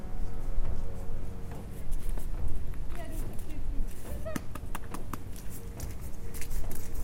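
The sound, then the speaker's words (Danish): Cows' hooves clop and shuffle steadily as a small herd, led by an old cow, walks past, irregular overlapping steps over a low outdoor rumble, with faint voices in the background. “Og hvem har vi forrest? Den gamle ko.”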